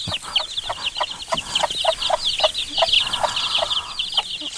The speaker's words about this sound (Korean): 어, 암탉 그러니까 엄마 닭과 병아리 소리입니다. 암탉과 병아리 소리예요.